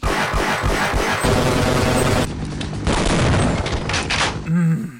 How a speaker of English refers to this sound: The guns sound powerful and just.